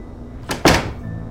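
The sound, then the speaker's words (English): A door is kicked shut by a person carrying a bag in their hands as they turn back into a house: a short scuffing thump followed at once by a louder, solid slam that rings off briefly. “I turned back into the house, shifting the weight of the bag in my hands so I could kick the door shut behind me.”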